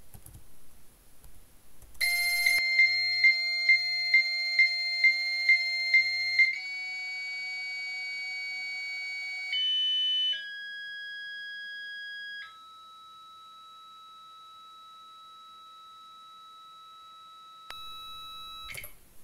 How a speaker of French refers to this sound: Et donc, euh, on va d'abord commencer par euh, montrer euh, un modem qui répond en fait tout seul, sans aucun, ce fameux son du modem.